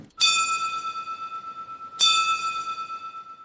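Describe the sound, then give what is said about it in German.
Two loud, ringing strikes of a coal mine signal bell, mounted on a waist-high wooden board behind the control desk in a mine's machine hall, about two seconds apart, each one sustaining with a bright metallic tone and a slowly pulsing decay. No voices. “Darauf ist die Glocke befestigt, mit der früher sämtliche Signale in einer Art Morsealphabet unter den Bergleuten weitergegeben wurden.”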